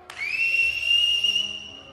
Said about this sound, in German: Dann, nach einer Ewigkeit des Ausharrens, ertönte ein schriller Pfiff.